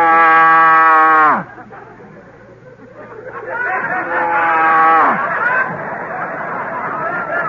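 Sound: cow mooing sound effect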